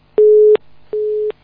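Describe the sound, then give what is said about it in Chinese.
Two steady electronic beeps at one mid pitch from a bad phone line, each lasting about a third of a second with a short gap between them, like a busy tone, with no talking. “他那个电话线不好。”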